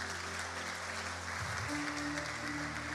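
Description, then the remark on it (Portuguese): Sustained audience applause for all women, a dense, steady wash of many hands clapping at an even loudness throughout, with a faint low hum underneath and no clear speech. “Uma salva de palmas a todas as mulheres.”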